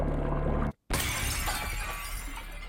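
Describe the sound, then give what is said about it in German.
A sphere in a water tank, heated during a nuclear chain-reaction experiment on 23 June 1942, bursts with a sudden, loud shattering crash after a brief hush, followed by a dense, sustained wash of crackling, glassy debris noise that slowly eases. No one speaks. “Dann explodiert die Kugel.”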